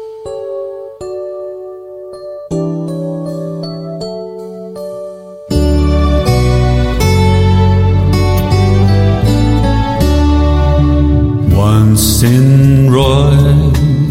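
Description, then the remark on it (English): A gentle instrumental intro to a Christmas carol: a sparse, chiming melody of sustained notes, then a fuller, louder arrangement swells in partway through and carries on warmly. No voices are heard. “Let's listen to some music.”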